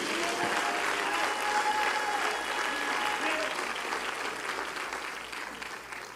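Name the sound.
audience clapping hands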